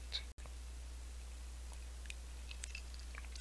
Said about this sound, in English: Let me take a sip as we change the subject.